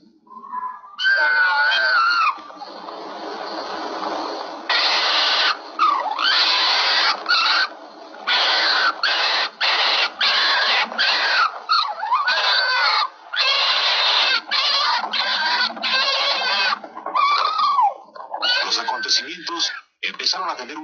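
Foxes, a female and a male, screaming and fighting, with harsh, shrill, raspy shrieks and cackles in rapid, nearly continuous bursts. The loud squabbling carries on for about twenty seconds with only brief gaps; the fight ends only when the male is driven out.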